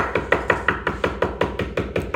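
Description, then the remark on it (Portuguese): Rapid, steady knocking on a door, about a dozen sharp raps in quick succession, fairly loud, with no voices. “Preparava-se para cear quando alguém bateu à porta incessantemente.”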